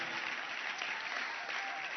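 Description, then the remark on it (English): An audience at a Christmas church service claps together to welcome a man coming up to read scripture, a steady, dense wash of applause that stays loud and even throughout, with no voices standing out. “Clap your hands and let's welcome him.”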